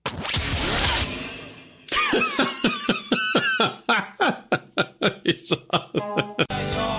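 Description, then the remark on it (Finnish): A person theatrically fakes a bad cold, imitating the worst symptoms of man flu, with a long raspy wheeze followed by a rapid run of over a dozen loud, strained, voiced coughs, exaggerated. “Toi on siis, toi on miesflunssan pahimmista oireita. Sit se yskäsee ja kalanruoto.”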